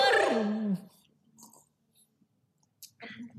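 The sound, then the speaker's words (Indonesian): Coffee is slurped from cups: a loud, drawn-out falling vocal sigh opens, then quieter intermittent sipping and mouth noises with brief murmurs. “Ayo diangkat kopirinya. Diangkat dulu. Wah, ini enak banget loh nih.”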